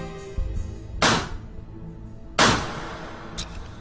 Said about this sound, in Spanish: Podemos determinar la distancia del disparo por la presencia de hollín y pólvora. El disparo se efectúa de cerca